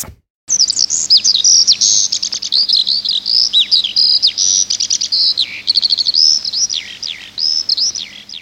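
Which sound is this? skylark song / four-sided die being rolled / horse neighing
skylark song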